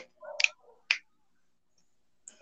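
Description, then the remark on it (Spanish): Three crisp finger snaps ring out, two in quick succession and a third after a short pause of quiet. “Es un chasquido. Mira, son mis dedos.”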